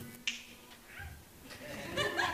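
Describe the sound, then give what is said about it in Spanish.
A single crisp finger snap cracks out early on, short and bright, made by a hypnotist's fingers to put a man to sleep, followed by a low murmur of background noise and faint voice-like sounds. “Pero cuando él queda dormido con el chasquido de mis dedos,”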